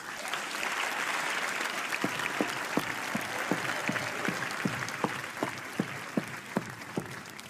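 An audience applauds steadily, a dense wash of clapping throughout, with a few sharper individual claps standing out in a loose rhythm. No one speaks over it.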